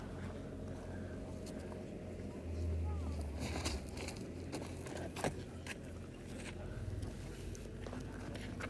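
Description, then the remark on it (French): Low, heavy breathing of dromedaries resting on sand at night in the desert near M'Hamid, beyond Zagora at the edge of the Sahara, after an hour of trekking, with soft scattered rustles and crunches of sand as they shift, over a steady low outdoor rumble. “On entend leur respiration, le bruit du sable.”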